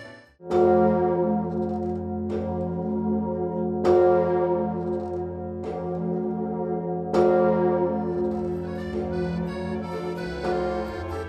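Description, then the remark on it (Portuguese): The Emmanuel bourdon bell of Notre-Dame Cathedral in Paris tolls slowly, four or five heavy strikes about every two to three seconds, each with a long, rich humming resonance that overlaps the next. No voices are heard. “A Catedral de Notre-Dame, em Paris, abriga diversos sinos. Dentre eles, o mais conhecido é o Bordão Emmanuel.”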